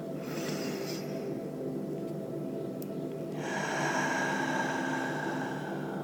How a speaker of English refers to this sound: So let's take a deep breath in now and let it go. You want to use your ujjayi breath, which is a yogi term for deeper breathing and then an audible exhale. So, deep breath in.